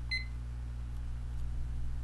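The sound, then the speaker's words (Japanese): A single short, high electronic timer beep sounds right at the start as the timer is set to three minutes and started, followed by quiet with a steady low hum in the background and no talking. “えー、3分間喋りたいと思います、はい、タイマーを3分にセットしてスタートをします”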